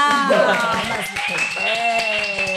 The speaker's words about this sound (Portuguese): Minha gente, uma salva de palmas.